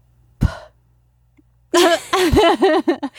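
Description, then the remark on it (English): A voice imitates its own soft sleep snore: a short breathy burst, a pause, then a wavering, nasal voiced exhale that rises and dips in pitch and fades out in little pulses. Fairly loud. “I only just snore in my sleep just a little bit, but my snores are like a.”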